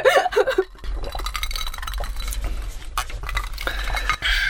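Glass clinking with a bright ringing tone at the start, followed by scattered small clinks and the soft slosh of a drink moving in the glass, with no one speaking, during a toast with rice shochu from Takahashi Shuzo of Kumamoto, drunk mixed with water.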